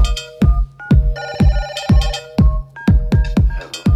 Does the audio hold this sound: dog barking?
no